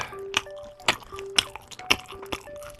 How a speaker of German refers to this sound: Oh, oh, oh, oh, das höre ich aus tausend Schmatzern raus. Hm? Das ist Grünkohl, in der Region Hannover auch Pinkel genannt.